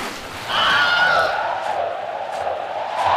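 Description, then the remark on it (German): Open sea waves surge in after a brief quieter moment, a loud, steady rushing wash with a faint airy whine, continuing without pause and with no one speaking. “Als die Rutsche endet, reißt, genau, und landest im offenen Meer.”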